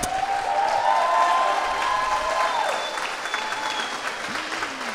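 Sustained audience applause in the main studio of Radio Nacional after a live song performance, a dense wash of clapping at steady loudness throughout, with a few faint whistles or tonal cries rising over it and tapering slightly toward the end.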